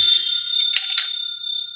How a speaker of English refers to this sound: answer the phone, Archie? No, you answer it.